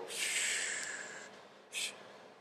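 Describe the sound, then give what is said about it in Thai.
A long, breathy exhale lasting just over a second, fairly loud, followed after a short pause by a quick, sharp intake of breath through the nose. “we always come back to the breathing กลับมาที่ลมหายใจ long exhale แล้วกลับมาที่พี่พูดถึงเรื่อง breathing คือถ้าเราเข้าใจทูในการหายใจอะเราคามอยู่เซลฟ์ดันได้ยิ่งเร็วยิ่งดี ยิ่งหาย long exhale”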